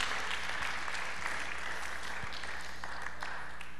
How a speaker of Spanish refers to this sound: ¿Podemos aplaudir, al Señor? Como que los veo medios dormidos todavía.